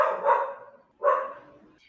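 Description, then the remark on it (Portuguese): A dog barks twice in a home studio, two separate full-throated woofs about a second apart, moderately loud, with a slight echo trailing each one. “estúdio caseiro cachorro com latindo. cachorro latindo.”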